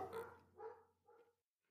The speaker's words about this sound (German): zwei Hunde bellen gerade in meinem Haushalt.